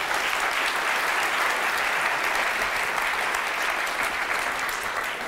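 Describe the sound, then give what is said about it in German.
An audience claps steadily for several seconds, a dense, even wash of many hands with no voices standing out, holding loud throughout before easing slightly at the end. “Und ja, da kann man noch mal klatschen.”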